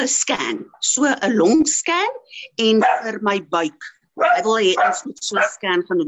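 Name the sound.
dogs barking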